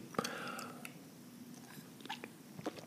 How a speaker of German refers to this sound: Und ich glaube, jetzt trinke ich doch noch mal einen kleinen Schluck von meinem Tee.